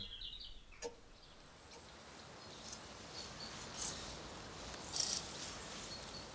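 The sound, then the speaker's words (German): A few crickets chirp sporadically in tall grass in the evening, with faint high-pitched trills of about 900 to 980 hertz rising out of soft background hiss, a brief click early on and a couple of brighter bursts near the end. “Einzelne Grillen in hohem Gras um sie beginnen, ihr Lied zu singen.”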